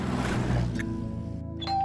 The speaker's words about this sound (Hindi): घंटी बजाते ही एक और लड़की ने दरवाजा खोला